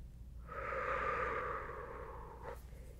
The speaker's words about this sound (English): should feel the air going in and out of your lungs, taking in any worries and breathing it out and just letting it go,